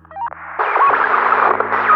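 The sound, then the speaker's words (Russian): A two-way radio crackles to life one evening: a short electronic chirp, then a burst of dense, hissing static with warbling tones, fairly loud, holding steady to the end. “Так он вел свое тихое, одинокое существование, пока однажды вечером его рация не издала давно забытый звук.”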